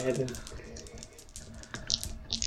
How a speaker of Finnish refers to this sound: Mutta ollaanko me valmiita siirtymään, heittelemään noppia ja... Juu.